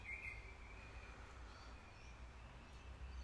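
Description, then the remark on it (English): Birds chirp in short scattered calls in gentle rain, over a steady outdoor hiss and low rumble, with no one speaking. “Listen to those birds.”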